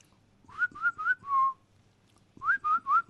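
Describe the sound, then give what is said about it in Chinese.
Someone whistles a playful imitation of a stomach growling from hunger: four quick mid-pitched notes, the last one held longer, then a short pause and four more. No talking, just the whistle. “哎呀，早上起来火火急火燎的赶到台里开会的时候，肚子饿的咕咕叫啊，就是那种”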